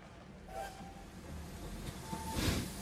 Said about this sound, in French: Ah J'entends enfin la cheminée à vapeur.